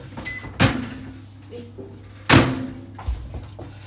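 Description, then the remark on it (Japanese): Two sharp door thuds, one near the start and a louder one a couple of seconds later, with a faint clack afterward, as a microwave oven door is pulled open and then shut over a low steady hum during a busy morning. “何なんだろうあ電子レンジが私を呼んでいるということで、えー、そちらにね移動したいと思います”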